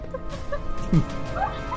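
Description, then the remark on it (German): Harsh, crow-like cawing squawks, a few short raspy calls over a steady background hum, the loudest one near the middle. “Das war eine Krähe. ja, das war eine Krähe.”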